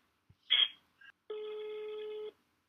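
A few short clicks and a brief burst of noise, then a single steady electronic ringback tone of an outgoing phone call sounds for about a second, clear and close.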